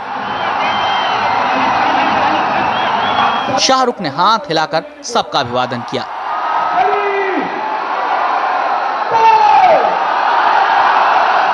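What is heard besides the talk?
crowd chanting and cheering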